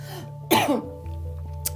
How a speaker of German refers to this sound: Entschuldigung, Husten.